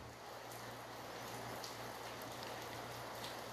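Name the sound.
rain falling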